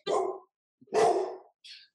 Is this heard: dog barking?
yes